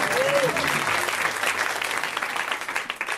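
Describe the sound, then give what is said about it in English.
Audience applause at a comedy show for comedian Andy Haynes fills the whole stretch, dense and steady clapping at a strong level, with a short whistle early on and a faint murmur of voices mixed underneath. “Guys, Andy Haynes, let's hear for Andy.”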